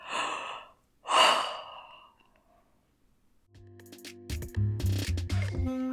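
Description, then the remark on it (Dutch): Two drawn-out, breathy yawning sighs, one right after the other, as a person yawns and stretches before lying down, then a quiet pause and music fading in. “En rek je jezelf ook nog even lekker uit voordat je gaat liggen? Geeuwen, gapen, rekken.”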